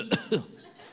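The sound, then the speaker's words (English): Two quick coughs in succession, sharp and deliberate-sounding, followed by quiet room tone with no talking. “And before you know it, even if you have no sickness, you feel like coughing.”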